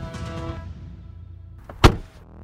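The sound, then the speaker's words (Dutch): A single solid car door slam on a quiet car in Druten, Netherlands, lands sharply near the end, preceded by a low mechanical whir like a power window or motor, with no talking. “Ik denk even een deurtje dichtgooien.”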